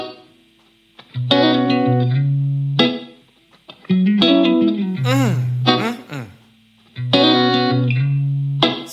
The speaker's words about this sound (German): Doesn't this guitar sound so good?